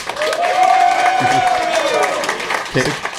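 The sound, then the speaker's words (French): A crowd roars with applause and cheering for wrestler Seth Rollins in a vote by applause on who wins the men's Elimination Chamber, a dense, loud wash of noise throughout, with a sustained high-pitched shout riding over it and a few voices. “Oh, oh, oh, qui gagne le Chamber masculin par applaudissement Seth Rollins?”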